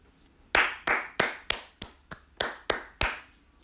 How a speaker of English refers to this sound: I want you to give this film a round of applause. That that is the game. That's all you got to do. Just give the film a round of applause.